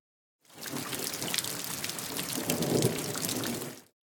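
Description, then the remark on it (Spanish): Steady, dense rainfall patters and hisses, with a low rolling rumble of thunder underneath that swells slightly midway before the sound cuts off; no voices. “Plus, we have our three new ones cerdo, serpiente, and lluvia.”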